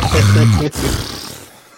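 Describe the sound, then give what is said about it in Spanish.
A woman snores loudly: one deep, rumbling, guttural snort lasting under a second, followed by a breathy, fading exhale. No one speaks. “cómo como ronca, güey. Se ve muy bonita, pero cómo de roncar.”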